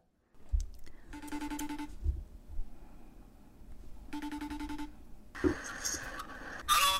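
Outgoing phone call ringback tone while calling the speaker's little brother: two steady electronic ring bursts, each under a second, about three seconds apart, over faint background noise and muffled rustling.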